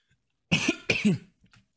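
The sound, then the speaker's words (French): Two forceful coughs in quick succession, followed by a faint little throat sound, with no talking. “Et du coup, alors, je vais tousser, excusez-moi, deux petites secondes.”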